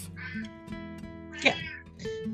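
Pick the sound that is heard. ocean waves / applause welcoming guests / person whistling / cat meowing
cat meowing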